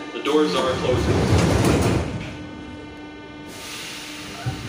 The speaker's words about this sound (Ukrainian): Обережно двері зачиняються.